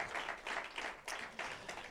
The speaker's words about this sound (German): Lass uns denen unsere Liebe schicken mit einem kurzen Applaus bitte, damit sie wissen, wir sind mit ihnen.